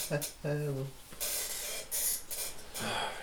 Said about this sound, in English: yeah, it's a fucking chair, man. You can hear that fucking chair, man.